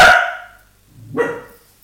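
Two sharp, loud dog barks, one at the start and another just over a second later, with no talking in between.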